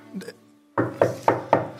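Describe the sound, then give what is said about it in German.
A sturdy figure who has stepped out of a carriage gives four firm knocks on a wooden door in a quick, even rhythm, each a dull thud with a short ring, following a brief faint sound and a moment of quiet. “Eine üppige Gestalt steigt aus, nicht dick, aber doch kräftig und klopft an die Tür.”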